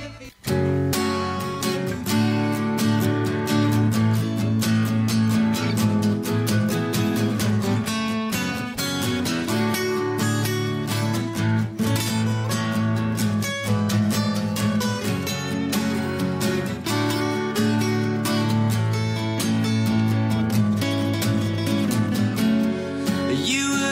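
A British indie rock band plays a full, steady cover version with driving drums, guitars and sustained synth chords, loud and continuous throughout without any talking over it.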